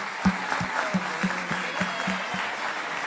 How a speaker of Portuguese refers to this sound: Vamos aplaudir mais uma vez as crianças.